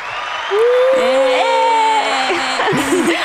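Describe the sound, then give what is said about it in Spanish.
A canned applause effect: a dense, steady wash of clapping lasting about three seconds, with a loud drawn-out cheer riding over it and a few shorter whoops near the end. “Entonces, de momento, los efectos vergas como que tenemos son, son muy, muy envasados. Así como tipo aplauso.”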